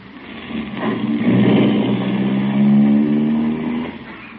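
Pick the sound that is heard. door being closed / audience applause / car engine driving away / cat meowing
car engine driving away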